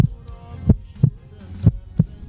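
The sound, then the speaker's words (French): A strong, deep heartbeat sound effect thumps in two slow lub-dub pairs, low and booming over a faint background hum, with no voices. “Quand j'ai retrouvé mes filles, mon cœur battait très fort.”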